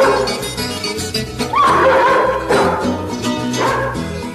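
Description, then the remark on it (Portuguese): A dog barks a few times at roughly one-second intervals, fairly loud, over steady instrumental music with plucked strings playing underneath. “Sai cachorro.”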